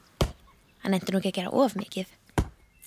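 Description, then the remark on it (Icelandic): Two sharp, heavy thwacks of an axe biting into a small, rather worn wooden branch deep in a forest, cutting firewood, one at the start and one near the end, with a person speaking in between. “Þegar hann var komin djúft í skóginn byrjaði hann að högva eina litla og freka lúna grein.”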